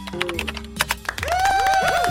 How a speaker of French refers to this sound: Mais non, pas ça, je suis champion du monde de taper la lettre P sur mon clavier d'ordinateur. Je peux en taper 650 en une minute.